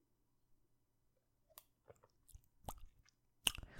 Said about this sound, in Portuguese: Vou só dar aqui um golinho da minha água.